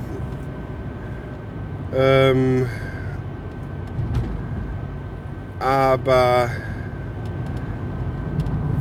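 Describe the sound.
Steady low rumble of a car interior while driving, a constant droning hum throughout, with a man briefly speaking over it twice.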